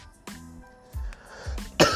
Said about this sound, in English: Coughing.